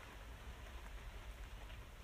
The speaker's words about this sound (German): äh, das äh, äh hört ihr jetzt wahrscheinlich nicht, aber es ist gerade so ein krasser Regen draußen. Jo, in fünf Sekunden hat es angefangen zu regnen.